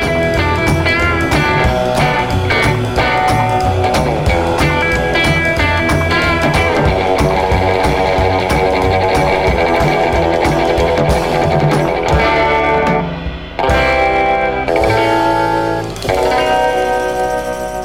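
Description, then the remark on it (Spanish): A loud, continuous stretch of music with strummed old-sounding guitar chords and the bright jingles of an old tambourine, washed in delay and reverb with a slightly odd, processed texture, briefly thinning near the end before resuming. “Una pandereta media vieja, acordes también viejos, con algún delay, algún reverb, alguna cosita media extraña, o quizás alguna palanquita de la viola.”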